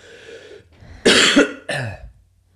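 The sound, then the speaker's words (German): Two harsh, close coughs in quick succession, loud and bursty, preceded by a quieter raspy breath or throat sound; no talking. “ich bin nur am Husten.”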